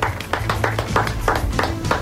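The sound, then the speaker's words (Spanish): Hands clap in a steady rhythm, about eight sharp claps, loud and evenly spaced over a low hum, with no voices. “cómo te, cómo te, cómo te aplaudo, ¿eh?”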